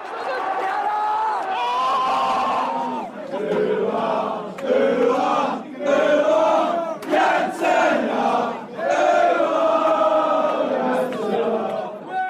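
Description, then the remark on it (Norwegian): A loud crowd of hundreds of United football supporters chanting together inside and outside The Torch pub outside Wembley Stadium in London, on a Saturday just after one o'clock, many voices singing in a rough, rhythmic unison that swells and dips with brief gaps between phrases, continuous throughout. “Hundrevis av United-supportere har samla seg. De er inne de er ute, de er på bordene, de er under bordene, de henger over gjerdene,”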